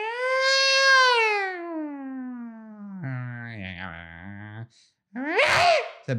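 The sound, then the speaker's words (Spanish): A person's voice imitates the aggressive yowling of cats in heat during mating: a long, drawn-out wail sliding downward, then a strained nasal cry, a brief pause, and a short harsh screech. “no sé si han tenido gatos, pero el sexo entre gatos es una cosa bien, bien agresiva. O sea, primero empiezan como unos...”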